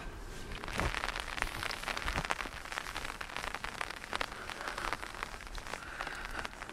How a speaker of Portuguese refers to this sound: Parece que teremos esse barulhinho de chuviscado como nosso principal companheiro.